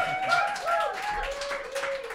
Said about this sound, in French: On va tout enlever les applaudissements au montage. Non, c'est pas vrai.